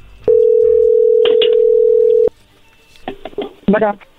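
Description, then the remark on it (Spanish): A steady, loud single-pitched dial tone holds for about two seconds, broken by a couple of short clicks, then cuts off, followed by faint voices and rustling as a telephone call is dialed. “A ver, bueno, ya se está marcando, no haga ruido, por favor.”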